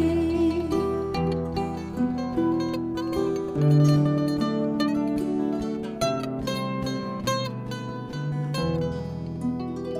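A music track plays steadily throughout, with layered, sustained melodic tones over a regular pulse of percussive hits, full-bodied and fairly loud with no talking.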